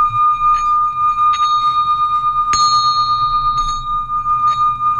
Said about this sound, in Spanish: a alguna persona con esta campana que he liberado aquí y ahora.